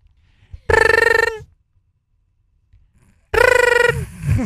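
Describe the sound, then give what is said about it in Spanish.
A telephone ringing, imitated by a voice in a role-played phone call: two loud, warbling, high-pitched bursts about half a second each, separated by a long silent gap, the second trailing into murmured talk. “Son el teléfono.”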